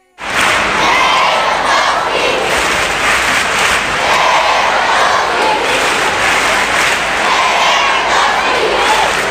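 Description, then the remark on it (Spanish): At FC Barcelona's open training session in Barcelona during the Christmas holidays, a crowd of fans, mostly children with high voices, chants "Lewandowski" over and over in loud, steady repeated phrases, with continuous crowd noise underneath. “Lewandowski, Lewandowski cantaban y además se escucha de fondo mayoritariamente una voz infantil, porque en estos días de Navidad los entrenamientos de los equipos de primera división se abren para los niños que están de vacaciones,”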